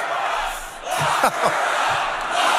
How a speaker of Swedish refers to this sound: För de som inte hör så skriker publiken alltså “Lock her up”. Lås mm. in henne, lås in Hillary Clinton, kasta henne i fängelse.